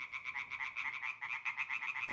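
A frog croaks in a rapid, steady series of loud pulsing calls, continuing without pause for the whole stretch with no voices.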